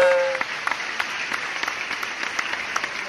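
Lively applause from a crowd, a dense steady patter of many clapping hands with frequent sharp claps standing out, continuing for a few seconds at a moderate distance.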